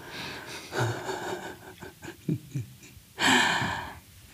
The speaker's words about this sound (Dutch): Ik ben ondertussen ook lekker met nagels in zijn tepeltjes aan het zetten. Daarom is hij zo aan het puffen en aan het hijgen en zo.